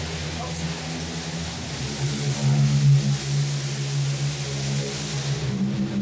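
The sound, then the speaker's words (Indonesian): An ordinary motorbike with a standard, stock exhaust drones with a steady, low, buzzing hum that holds fairly even in loudness for several seconds, with a slight swell toward the middle. “sorry itu motor biasa bukan gerombolan sorban putih oke okay. oke okay. motor biasa knalpotnya yang udah biasa”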